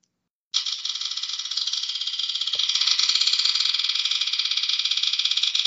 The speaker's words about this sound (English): So we're going to spin the spinner, see what it says.